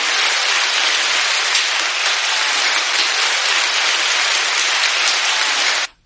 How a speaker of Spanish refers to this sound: Aplausos, aplausos.